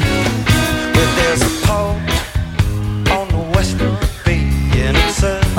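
A rock band plays a live concert of very pop-oriented material, loud and full, with steady pounding drums, bright guitars and sustained melodic lines driving continuously through the whole stretch without pause.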